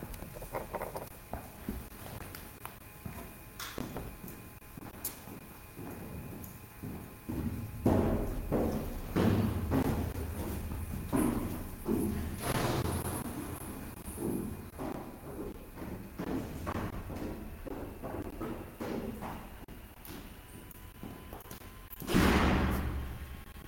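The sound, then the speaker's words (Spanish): Someone knocks on a door: irregular knocks and dull thuds, some sharp, scattered among rustling and pattering movement, with a louder burst of noise near the end; no voices. “Perdón, perdón, perdón, pero Tocaron la puerta.”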